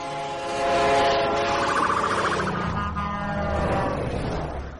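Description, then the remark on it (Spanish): A loud train horn blares steadily as the train passes, its chord dropping noticeably in pitch partway through, over a rumbling rail roar. “En el colegio siempre se pone el ejemplo de la sirena de una ambulancia o un tren para explicarlo es que el tono va cambiando a medida que el objeto se acerca o se aleja de ti.”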